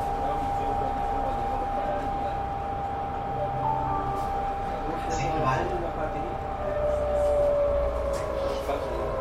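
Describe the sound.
A tram rumbles along Obernstraße in Bremen, Germany, on a Sunday night over wet, shining rails, with a steady metallic hum and squealing whine from the rails, continuous, amid city noise and faint voices.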